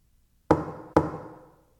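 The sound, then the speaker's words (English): Two firm knocks land about half a second apart, each sharp and resonant with a short ringing decay, fairly loud against an otherwise quiet background. “Oh God, I can't think of a noise I hate more than that persistent knock.”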